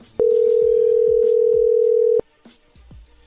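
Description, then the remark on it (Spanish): A steady telephone dial tone, heard while a phone call is being redialed, hums at a single low-mid pitch for about two seconds, loud and unbroken, then cuts off abruptly, leaving faint background noise. “Le vamos a marcar de nuevo, ¿ok?”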